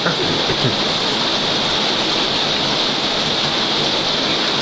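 Heavy rain, which fell for about two hours, pours down in a dense, unbroken, loud hiss, with no pauses and no voices.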